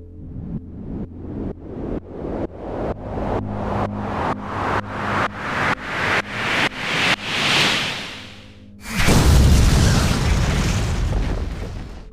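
A series of rhythmic pulses quickens and swells in a rising build-up, then a loud explosion bursts out with a deep rumble and a roaring, noisy tail that slowly fades. No one speaks.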